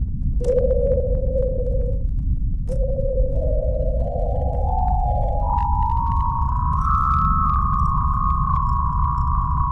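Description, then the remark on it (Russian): A radio signal from Venus picked up by the Parker space probe during its third flyby, passing 833 kilometres above the planet's surface, played as sound: an eerie, steady whistling tone that climbs in pitch in small steps over a dense, constant low rumble, with no voices. “И вот действительно, что ни на есть космический звук.”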